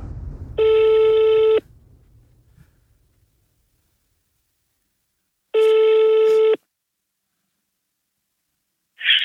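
A telephone ringing tone sounds twice, each a steady electronic burst lasting about a second, separated by several seconds of silence, with a third ring just beginning at the end. No one speaks.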